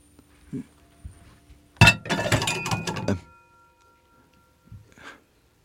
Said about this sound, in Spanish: Toqué. Era una puerta de metal.